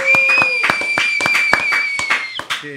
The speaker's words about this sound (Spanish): Un aplauso. Un aplauso pues, para, nuestro programa